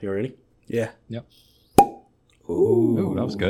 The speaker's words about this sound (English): I'm drinking a small batch 1792, which is a nice Kentucky bourbon. Nice, nice. All right, here, hang on. I'm gonna pop this bottle.